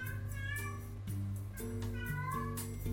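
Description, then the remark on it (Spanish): A cat meows insistently several times in a row, drawn-out plaintive cries asking to be fed, over a steady droning tonal background. “Porque si no, no dejan de, de llorar.”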